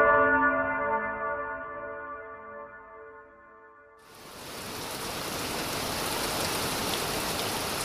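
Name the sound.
heavy pouring rain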